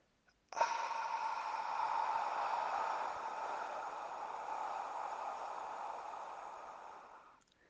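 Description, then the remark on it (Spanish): A long, slow open-mouthed exhale, a steady breathy huff like fogging a mirror, lasting about seven seconds at an even volume before fading out; a breathing-exercise exhale through the mouth after a six-second inhale through the nose and a three-second hold. “Vamos a inhalar entonces en 6 segundos por la nariz, vamos a retener el aire por 3 segundos, cuentas en tu mente 1, 2 y sueltas por la boca en 9 segundos haciendo el sonido del vaho.”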